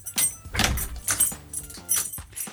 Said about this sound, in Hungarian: Nem lehetne egy kis ajtónyikorgás? Bármi lehet, tudod mit? Okay. Inkább azt halljuk, hogy utána becsapódik az ajtó.